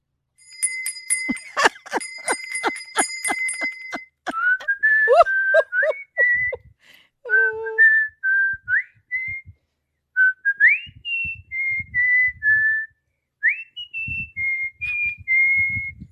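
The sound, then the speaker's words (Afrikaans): A bell rings rapidly about eight times, then a person whistles a tune: clear, bright notes in short phrases with brief pauses, and no talking. “Dink ek het geweet jy kan so gevaarlik fluit nie.”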